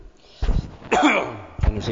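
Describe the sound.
A man coughs three times in quick succession, harsh, breathy bursts with the middle one longest and loudest, then the next talk begins.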